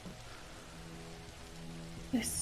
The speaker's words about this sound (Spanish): Escuchás como una madera cruje entre todo el ruido ya existente de la lluvia, los truenos pero ese ruido viene, proviene de arriba.